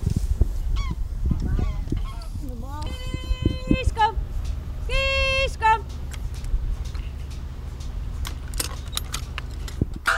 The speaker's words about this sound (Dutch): … eh, roept de koeien.